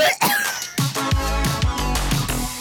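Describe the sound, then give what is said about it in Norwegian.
A person gags and retches repeatedly, a series of harsh, strained heaves with guttural voiced groans coming in quick succession, and no talking. “Og det var ikke jeg som fikk deg til å brekke deg.”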